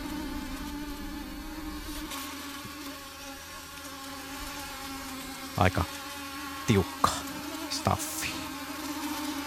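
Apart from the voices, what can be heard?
mosquitoes buzzing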